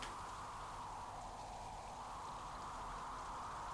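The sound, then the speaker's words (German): Steady, continuous rain hissing evenly throughout on a windy night, a dense wash of drops with no pauses or individual spatters standing out, fairly soft and even in level. “Heulender Wind, sträubender Regen, flackernde Kerze.”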